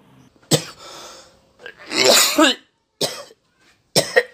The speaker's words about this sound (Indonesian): Nah kan, batuk lu aja makin-makin kan? Buruan nih minum obat dulu.